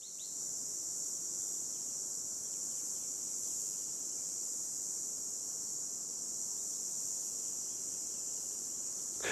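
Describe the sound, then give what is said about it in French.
A red cicada sings in one continuous, steady high-pitched buzz that never breaks for the whole stretch, heard alone over a faint outdoor background with no voices. “la première cigale, tu l'attends, là, au 15 juin, la première cigale rouge, là, je, prête un peu l'oreille, et puis dès que je l'entends, je dis, ah, ça y est, c'est parti pour les cigales, mais c'est parti pour trois semaines, un mois.”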